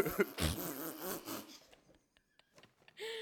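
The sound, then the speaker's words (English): A loud, sputtering fart lasting over a second, rough and buzzy with wavering pitch, followed by a quiet stretch of faint small noises and a brief breathy sound at the end. “the farting's the best part.”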